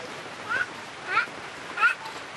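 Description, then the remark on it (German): Mud bubbles and gurgles like boiling water on a rice field, three short wet blips spaced about evenly over a low, steady watery hiss, with no voices. “Es blubbert auf dem Reisfeld wie kochendes Wasser.”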